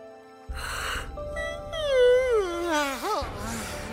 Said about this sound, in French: mais Tchatchoui, lui, baillait.